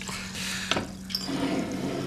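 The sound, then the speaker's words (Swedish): A drink pours steadily into a glass, a continuous splashing gush with a small clink early on and a rising gurgle toward the end, no voices. “Det lät bra när du hällde.”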